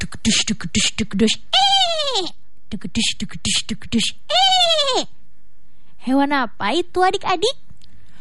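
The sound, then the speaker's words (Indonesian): A voice imitates a galloping horse with quick, rhythmic clip-clop syllables, each run ending in a loud, wavering neigh. The pattern repeats twice, then the voice asks a short question. “Ketika Tupi berteriak minta tolong, tak jauh dari sana muncul sesosok hewan yang suaranya seperti ini.”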